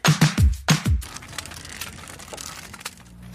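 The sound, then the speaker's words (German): Dry leaves and foliage crunch loudly underfoot outdoors in four or five quick, crackling steps, then settle into a softer, scattered rustling with small crackles. “Hier sind Blätter und Laub.”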